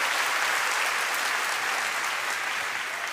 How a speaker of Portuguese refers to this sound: Quem recebe, dá uma salva de palmas ao Senhor.